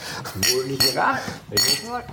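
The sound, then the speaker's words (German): Glasses clink together in a toast to success, three or four bright, ringing taps spread over a couple of seconds, with voices murmuring underneath. “Jetzt müssen wir noch anstoßen auf euren Erfolg.”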